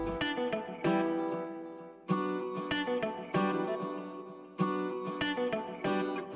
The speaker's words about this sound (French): Et pour le mélanger à une autre loupe, des fois je peux prendre qu'une seule, euh, qu'une seule note dans la loupe. En l'occurrence pour ce morceau-là, j'ai dû euh, mélanger euh, au moins 5 ou 6 samples de guitare en fait.